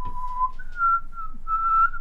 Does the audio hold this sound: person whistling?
yes